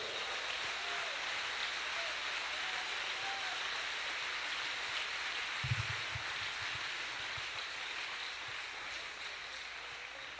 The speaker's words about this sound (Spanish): Ese aplauso déselo al Señor en esta noche.